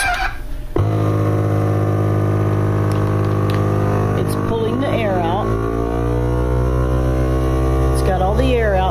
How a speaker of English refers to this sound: And we have a sealed vacuumed, a vacuum sealed bag